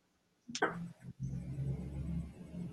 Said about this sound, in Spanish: Una disculpa, una disculpa. que como sobre una avenida, siempre silencio el micrófono para que no se meta el ruido de los camiones.